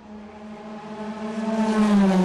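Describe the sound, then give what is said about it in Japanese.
A race car engine roars with a strong, buzzing tone that grows steadily louder over a couple of seconds as it closes in, the pitch holding high and strained. “空気を切り裂く爆音が生きる叫びにも聞こえた”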